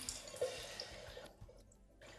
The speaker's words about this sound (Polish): Teraz y, ja wyleję wodę z tego dzbanka, y, żeby pokazać, jak wygląda kwestia nalewania i w jaki sposób ja to robię.